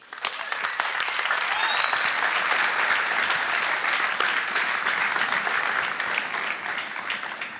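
Sustained audience applause, a dense steady wash of many hands clapping at an even loudness throughout, with faint crowd noise mixed in and no clear speech.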